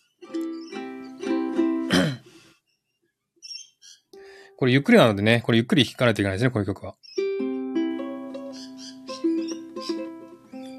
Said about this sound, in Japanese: 鳥さん、うるさい、うるさい、うるさくない。鳥さん BGM ありがとうございます。